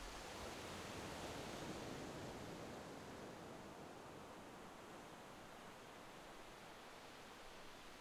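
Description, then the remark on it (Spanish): A steady, broad rush of surf washes along a beach shore, swelling slightly at first and then holding a constant, hissing roar with no distinct individual breakers and no voices; soft waves break a few meters away. “Escucha ahora el sonido de las olas, cómo llegan desde lejos a parar a la orilla de la playa.”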